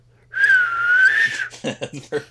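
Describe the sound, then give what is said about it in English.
A person whistles a long, smooth, slightly wavering tone, mimicking the whoosh of a spiraling football in flight, then breaks into short bursts of talk or laughter. “You're playing football. Sure, it's whistling. spiral.”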